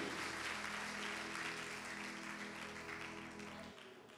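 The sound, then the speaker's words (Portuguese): A church audience applauds together to celebrate Jesus, dense continuous clapping over a steady low hum, fading slightly near the end as the sustained tone cuts out. “Celebra ao Jesus com palmas, glórias e honras, porque ele é digno.”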